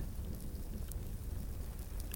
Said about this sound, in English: The storm started to subside until all that remained were grey clouds,